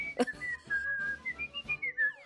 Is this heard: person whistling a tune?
yes